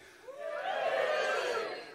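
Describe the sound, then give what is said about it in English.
An audience cheers together, answering a call to cheer if they are in a relationship, in a brief burst of voices that swells quickly, holds for about a second and a half, then fades. “Um, oh, I'll be honest with you, I'm just glad to be out of home at the moment because um, just give me a cheer if you're in a relationship.”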